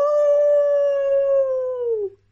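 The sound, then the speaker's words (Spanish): A person imitates a wolf howl, one long sustained tonal note that holds steady for about two seconds, then slides downward and cuts off, loud, with no other talking. “Aúlla el lobo feliz.”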